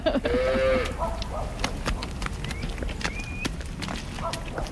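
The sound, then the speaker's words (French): A dairy cow gives a short low moo, then hooves clop irregularly along a hard farm path as several dairy cows are fetched and move together, with a few faint whistled calls in the background. “les chemins commencent à être boueux, mais lorsque les chemins sont plus secs, souvent on va ramasser les, chercher les vaches laitières.”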